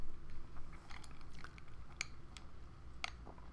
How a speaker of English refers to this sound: I need a sip. Hold on.